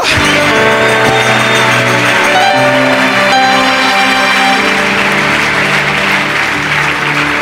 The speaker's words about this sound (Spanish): Un aplauso de victoria y grito de júbilo. Aleluya.